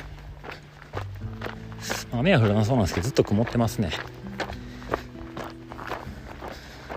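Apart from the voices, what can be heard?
footsteps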